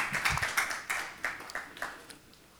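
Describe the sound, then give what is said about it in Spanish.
A church audience applauds the Lord with a burst of quick, overlapping claps that settles into a steadier rhythm of distinct claps, then thins out and fades toward the end. “Fuerte aplauso Señor.”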